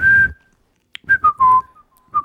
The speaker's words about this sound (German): Weißt du noch, wann du, wann du, wo, wann und wo du zum ersten Mal in deinem Leben gepfiffen hast?